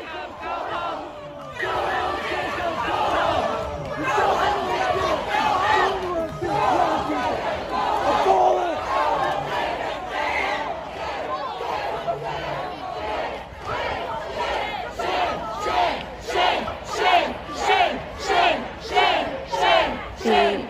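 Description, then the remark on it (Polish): A huge crowd of many thousands roars and shouts at a man, calling him a traitor and telling him to get out, loud and dense, then settles into a rhythmic chant with regular pulsing beats that grows steadier toward the end. “wielotysięczny tłum krzyczał, że jest zdrajcą i ma wypierdalać.”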